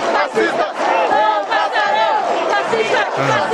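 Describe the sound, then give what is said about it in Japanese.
A large crowd at an anti-fascist rally in June chants slogans such as "Fascista, fascista, no pasarán", many voices shouting together in loud, continuous waves with rising and falling pitch and no pauses. “なんかあの、人が何事か叫んでいる、シュプレヒコールを上げているような感じですけれども、これは何ですかねこれ6月にあったですね、はい、ファンあ、反ファシスタ集会の声ですね、うんうん。”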